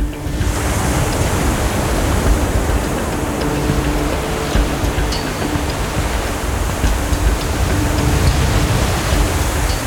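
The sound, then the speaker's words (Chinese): Huge tsunami waves crash ashore at a fishing village in a loud, unbroken roar of churning water, a dense rushing wash that holds steady for about ten seconds with no voices. “等到了渔夫们刚抵达小山坡的最高处，就在那一瞬间，巨大的海浪翻涌上岸。”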